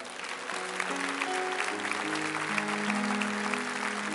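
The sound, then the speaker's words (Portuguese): An audience applauds God steadily, a dense wash of clapping that holds at a constant level, with sustained organ or keyboard tones rising and shifting underneath. “Meu irmão, era para você aplaudir a Deus agora.”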